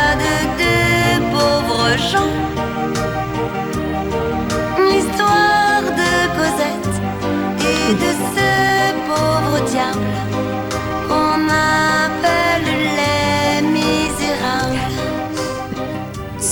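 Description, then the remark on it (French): The theme song of the 1990s cartoon Les Misérables plays loud and steady for the whole stretch, a female singer's bright melody riding over a busy, full band with driving rhythm and no talking. “Il suffit de bien écouter le, générique et je pense que vous arriverez très vite à trouver.”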